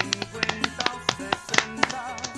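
A quick, uneven run of hollow, popping taps made by slapping the cheeks as mock applause, fairly loud, with no talking over it.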